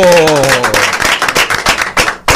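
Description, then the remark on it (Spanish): A short burst of applause: many hands clapping in a fast, dense patter that stays loud throughout, with a brief tonal voice sound fading out at the start. “Un aplauso.”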